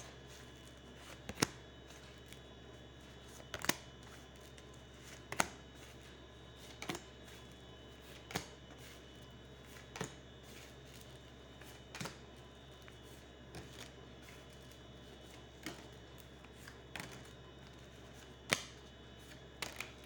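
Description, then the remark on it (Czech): Tarot cards being shuffled for a yearly reading: irregular crisp snaps and slaps, roughly a dozen spread out over the stretch, separated by quiet pauses over a faint steady hum, with no one talking. “A já už se dívám na vaši fotku, míchám u toho karty a podíváme se teda spolu, jak se bude barvit to období 2022.”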